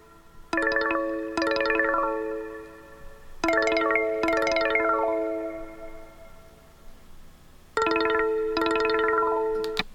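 A looping phone ringtone called Backroad plays alone, previewed while scrolling through a phone's list of ringtones, repeating a bright two-note chime phrase three times with short gaps, each strike ringing out with a clear, slightly echoing electronic tone.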